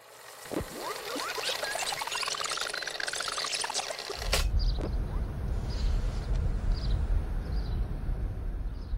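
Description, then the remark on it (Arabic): Short, high bird chirps repeat several times over a steady rumbling outdoor noise in archival footage of US forces entering Iraq in 2003, with military vehicles driving through Iraqi streets, following an earlier stretch of hissing with a whistling tone that rises and falls. No one speaks. “انتوا سامعين صوت العصافير؟”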